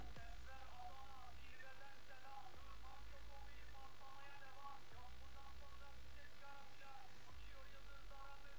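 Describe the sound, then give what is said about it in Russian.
A low, heavy electrical buzz surges on and off in several bursts as a cat gets an electric shock, in a TikTok video, with a steady hum and muffled voices murmuring underneath. “Кота током ударил, ты видел?”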